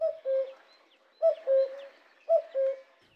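A cuckoo calls three times in steady succession, each call a clear two-note 'cu-ckoo' with the second note slightly lower, standing alone against quiet surroundings.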